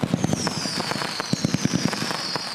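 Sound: fireworks exploding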